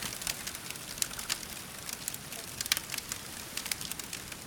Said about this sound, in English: Gather round the campfire. Feel the warmth, the sound of the crackling wood. The smoky smell fills the air.